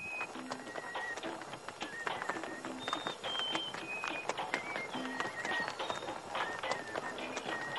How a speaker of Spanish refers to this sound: Se acerca a un carro tirado por dos mulas conducido por un campesino.